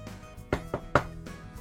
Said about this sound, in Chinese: 看着云舒有些愣神儿，张思年修长的手指敲了敲桌面，开口解释道：